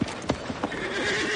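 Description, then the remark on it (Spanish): Horse hooves clop in a few sharp, uneven knocks at the start as a rider slowly moves his horse beneath a hotel room window, then a whinny rises and holds briefly, over a soft background hum. “Lentamente se sitúa con su caballo bajo la ventana de la habitación.”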